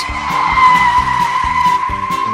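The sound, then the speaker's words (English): Car tires skid and squeal loudly in a sustained high screech as cars skid to a stop, lasting a couple of seconds, with a rhythmic low background thump underneath. No one speaks. “It stopped the cars.”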